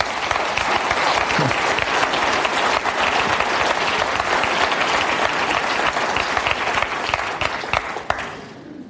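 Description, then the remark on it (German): An audience in a cinema and a hall breaks into sustained, steady applause for newcomers who have come, a dense wash of many hands clapping at full volume for about eight seconds before it quickly dies away. “Und ich finde, diesen Leuten, die sich aufgemacht haben, die, die noch gar nicht sagen, ich bin Kille, denen geben wir doch jetzt mal einen Applaus.”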